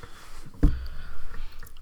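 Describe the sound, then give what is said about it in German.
A single crisp crunch of someone biting into crunchy chocolate flakes, followed by faint, muffled chewing sounds against a quiet background. “Lecker Knusperflocken.”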